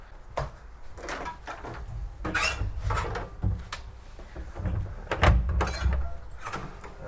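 Someone tries to open a locked door, the handle and door rattling and thudding in a series of sharp jolts over several seconds, loud, with no voices.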